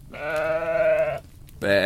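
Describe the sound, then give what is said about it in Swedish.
A sheep bleats twice: a long, wavering, nasal baa lasting about a second, then a brief pause and the start of a second loud bleat. No one speaks. “Efter ett tag mötte hon ett får som hade tagit sig igenom ett hål i fårhagen.”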